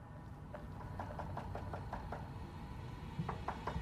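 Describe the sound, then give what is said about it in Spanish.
Repeated knocking on apartment doors by a security guard notifying residents of noise complaints, a quick series of sharp raps followed by a pause and another burst, heard over a steady low rumbling background. “Teníamos un guardia de seguridad que comenzó a golpear las puertas y notificar a los residentes de quejas por ruidos.”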